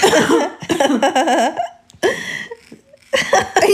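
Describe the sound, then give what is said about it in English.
A series of loud coughing fits, some with a raspy, almost laugh-like vocal quality, broken by short pauses between bursts. No one speaks. “Stop fucking coughing.”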